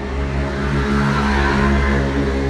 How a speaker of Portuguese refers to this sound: Uma moto passou.